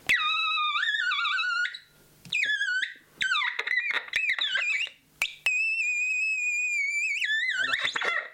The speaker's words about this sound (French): c'est une petite boîte en bois avec un circuit imprimé dessus. Et ce qui est intéressant avec cette machine, c'est qu'elle a six petites plaques argentées qui sont connectées à un haut-parleur à l'intérieur, et ça permet de faire certains sons.